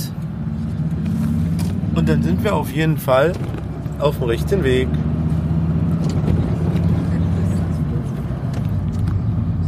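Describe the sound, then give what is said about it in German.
A car's engine hums in a steady, low rumble throughout the drive at moderate volume while someone speaks briefly over it in German. “So, ich hoffe, das Auto ist jetzt hier nicht genau. zu laut.”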